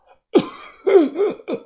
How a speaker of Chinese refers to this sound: 老头捂着脖子咳嗽了两声，